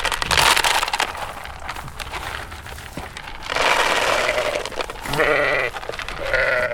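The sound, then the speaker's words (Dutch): Several sheep of the Nunspeet municipal flock bleat loudly in overlapping, wavering calls as the shepherd drives up to feed them, backed by a steady crunching and rustling noise like animals jostling and eating, with no one speaking. “komt toevallig de schaapsherder even aangereden om de schapen voer te geven.”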